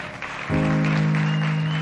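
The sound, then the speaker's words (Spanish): An audience applauds in a steady, dense patter as people are called up onto a stage to honour cyclists. The applause swells halfway through, when a sustained low musical tone comes in and holds beneath the clapping until the end. “Fuerte aplauso.”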